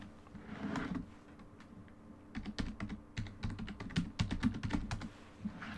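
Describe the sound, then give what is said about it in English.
Rapid typing on a computer keyboard, fairly quiet, with a steady flurry of clicky keystrokes in irregular bursts over a low background hum. A brief pause interrupts the typing early on. “I hope you get nice audio of me typing.”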